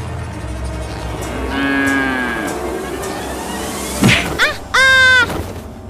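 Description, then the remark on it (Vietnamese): A cow lets out a long, drawn-out moo over a steady background, followed by a sharp thwack as the cow kicks a man, and then a short, loud, strained bellow. “Anh có sao không Trời ơi Đã bị bò đá thế này Thì tiệc tùng làm gì nữa”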